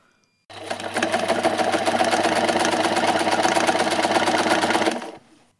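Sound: sewing machine running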